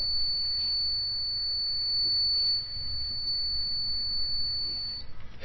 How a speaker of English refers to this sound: If we continue to pour, Okay, it's beeping once more. That's a continuous high pitched beep, and that means that it's half an inch from the top.